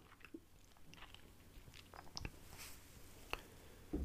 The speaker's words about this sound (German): Muss eben einen Schluck Wasser trinken.